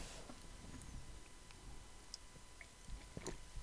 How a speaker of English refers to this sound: But the problem with that, sorry, I took a drink of water.